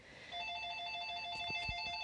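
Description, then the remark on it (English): A telephone rings with a steady, bright electronic trill that starts a moment in and carries on without a break, joined by a few soft low thumps. No one speaks. “Oh shit, that phone's probably for me.”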